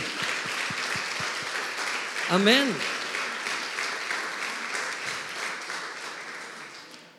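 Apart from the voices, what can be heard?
audience applause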